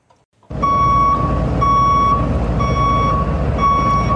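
A truck's reverse alarm beeps four times in a steady, evenly spaced rhythm, loud, over the heavy rumble of an idling diesel engine.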